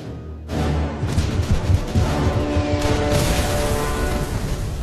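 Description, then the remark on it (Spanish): US 105 mm howitzer fire erupts after a brief pause: a heavy boom as the shell is fired rolls into a dense, sustained rumble of exploding blasts and battlefield noise that stays loud to the end, with no voices. “El obús de 105 milímetros era una de las armas más importantes del arsenal de Estados Unidos.”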